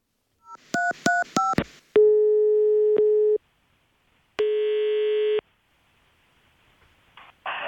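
A quick run of keypad dialing beeps, then a telephone ringing tone sounds twice as long steady buzzes with a pause between, on an outgoing call made by an intern to Hotellmästare Johan, followed by faint line noise.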